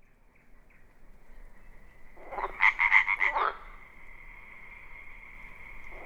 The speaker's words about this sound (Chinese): 原来瀑布底下有着一条美丽的小溪，夜晚的青蛙在小溪流旁边叫着